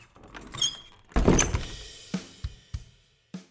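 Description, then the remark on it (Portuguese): A rattling, scraping burst like a door handle and door moving, followed by three sharp, evenly spaced knocks on the door of a boss's office and one more a moment later, with no voices. “A porta bateu três vezes, como era comum, e entrou.”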